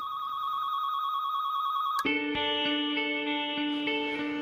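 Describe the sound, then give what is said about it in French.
An electronic telephone rings loudly: a steady high beep for two seconds, then a richer, buzzing chord that pulses in a regular rhythm. No one speaks. “On dit d'ailleurs que lorsque le téléphone sonne à Matignon, personne ne répond si l'appel vient de l'hôtel de ville de Paris.”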